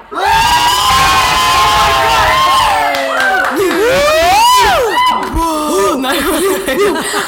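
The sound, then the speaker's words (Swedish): A large live audience shouts 'Hallå!' (Swedish for hello) together on a count of three in one loud, drawn-out call, which breaks into scattered whoops, cheers and laughter from the audience over the next few seconds. “Så kan alla bara så här typ skrika ett litet Hallå! På tre.”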